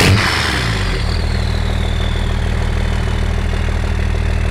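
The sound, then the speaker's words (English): A Cummins diesel truck engine rated 160 horsepower cranks and fires up, puffing black smoke, then settles into a loud, steady, low rumbling idle with a constant throb and no talking. “When you start it up, big black puff of smoke comes out.”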